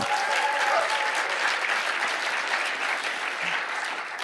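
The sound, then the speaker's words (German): A large church audience applauds to welcome two guests, a dense, loud wash of clapping that holds its level for several seconds without any speech over it. “komm, begrüß mal die beiden mit einem riesen Applaus”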